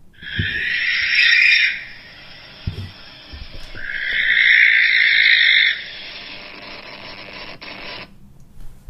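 Two long, harsh, hissing screeches of a barn owl, each lasting one to two seconds, loud, separated by a short pause, with a faint steady background noise and no talking.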